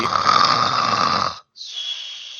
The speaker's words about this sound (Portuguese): tá rocando muito.